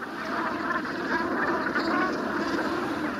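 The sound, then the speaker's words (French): A flock of hundreds of brant geese on a beach, close to the sand as the sea comes in, mutter and cackle together in a dense, continuous chatter of low, overlapping calls, fairly loud and steady throughout, with no voices speaking. “Mécontentes, les bernaches murmurent, marmonnent, caquettent.”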